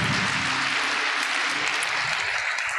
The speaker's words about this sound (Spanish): ¿Cuántos dicen amén a eso? Dale un aplauso a Dios. Gracias, Padre.